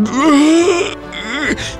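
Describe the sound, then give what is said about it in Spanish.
A long, drawn-out yawning groan from a man, rising and sagging in pitch, followed by a shorter strained moan as he stretches, fairly loud with no words spoken. “Total, que me ganó un bostezo. Y entonces me estiré como, como león con hueva.”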